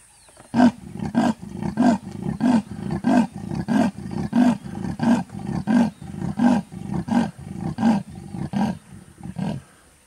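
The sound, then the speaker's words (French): A big cat roars in a long series of deep, grunting bursts, around fifteen evenly spaced pulses that sound loud, with no voices present. “Je n'ai aucun doute sur le fait que vous savez que le lion rugit, que le tigre feule.”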